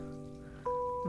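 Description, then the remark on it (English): A water fountain trickles steadily on its own in the background, a soft continuous patter of falling water with a faint humming tone underneath that swells a little louder partway through. “And I was very excited to do one of these episodes because, well, now I have my fountain and you could actually hear it in the background now.”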